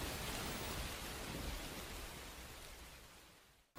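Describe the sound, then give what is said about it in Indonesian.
Heavy storm rain roars steadily with a rushing wind, a dense, loud wash of noise that eases slightly toward the end before cutting off abruptly. “Badai datang begitu cepat.”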